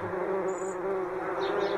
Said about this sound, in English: a hornets or a wasp nest they don't sound happy